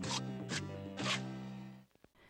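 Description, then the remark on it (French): Three crisp, crunchy bites into an apple, evenly spaced about half a second apart, over a steady tonal hum that fades out, leaving a couple of soft clicks at the end. “Ce crunch, ce serait donc le bruit des crocs qui arrachent la pomme.”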